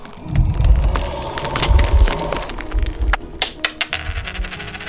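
A coin falls and clatters onto a hard counter, bouncing and rattling in a quick series of bright clinks before it rings briefly and settles, with no voices.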